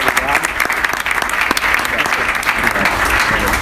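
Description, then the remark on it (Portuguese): Steady, dense applause from an audience for guests who came to share their experiences and stories. It fills the whole stretch, loud and continuous with many overlapping claps, with some voices mixed in underneath. “Então, uma salva de palmas para esse pessoal.”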